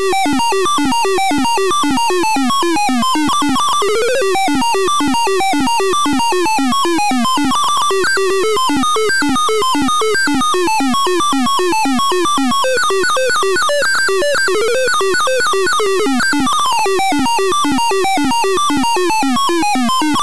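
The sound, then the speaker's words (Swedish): Frantic retro computer game music from a game's intro plays throughout, a loud, busy stream of fast, bleeping electronic notes racing up and down in quick runs, with no voices. “om vi tar och lyssnar lite grann på musiken till Fat Worm Blows a Sparky”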